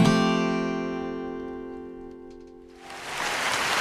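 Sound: applause sound effect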